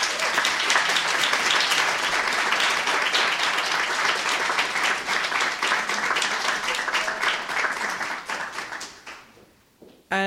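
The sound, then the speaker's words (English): Sustained audience applause, a dense crackle of many hands clapping at a steady loudness for about nine seconds before tapering off, with a brief voice cutting in at the very end. “You have to give another round of applause”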